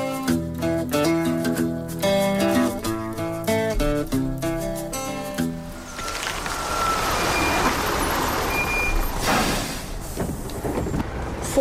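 A few seconds of loud, wailing tonal sound give way to the steady engine rumble of a bus being driven in the summertime, with broad road noise that keeps running to the end.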